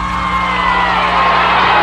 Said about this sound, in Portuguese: Agora a multidão se aproxima da casa do prefeito e ameaça depredar a casa.